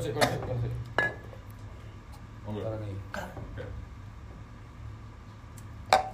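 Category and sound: household object, glass bottle being opened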